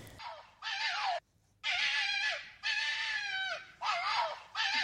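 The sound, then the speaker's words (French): A red fox calls out in a run of about five loud, raspy, strained cries, each roughly half a second to a second long, with brief pauses between them and no talking. “C'est le son que fait le renard quand il appelle.”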